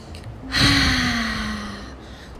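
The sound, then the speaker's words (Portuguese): One deep, drawn-out breath in through the nose during a guided meditation, an airy hiss that swells quickly and lasts about a second and a half, with a faint steady hum beneath it. “Toma uma respiração, puxa o ar pelo nariz”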